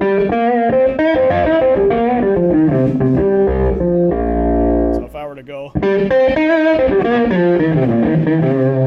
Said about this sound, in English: a very heavy, fuzzed out octave up effect.